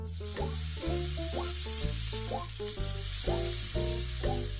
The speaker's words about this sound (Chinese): 乌拉拉拿出煎勺，煎香喷喷培根。